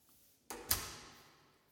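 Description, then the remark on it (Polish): A door being opened to go out to a corridor, recorded on a Motorola Moto G4 phone with no extra processing: two sharp clacks of the handle and latch in quick succession, followed by a short, fading echo with no one speaking. “Mogę sobie otworzyć drzwi, iść na korytarz.”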